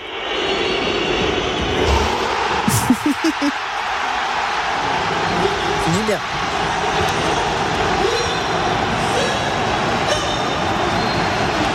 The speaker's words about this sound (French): Ah oui, la joie, la joie des supporters au coup de sifflet final, avec les chants.